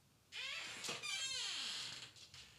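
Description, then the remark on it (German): A door creaks open with a long, wavering squeak that rises and falls in pitch, fairly loud, lasting about two seconds with no talking. “Ja, die Tür quietscht.”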